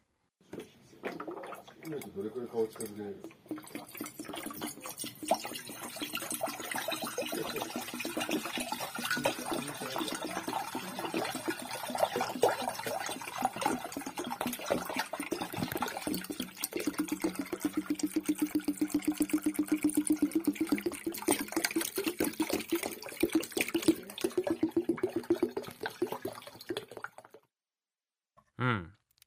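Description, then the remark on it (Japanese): Water from a hot-water bottle glugs and splashes steadily into a pot, to be heated, for about half a minute around 5 pm in the evening. It is fairly loud, with a husband and daughter chatting quietly in the background. “湯たんぽのお水を温めるために鍋に移す夕方の音です話し声は夫と娘です”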